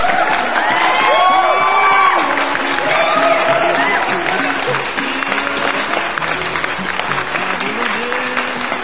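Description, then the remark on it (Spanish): Loud, sustained applause and cheering from a crowd, with whoops and excited voices shouting over steady clapping that fills the whole stretch without pause. “da por iniciado los especiales del Club de los 27. A huevo, aplausos.”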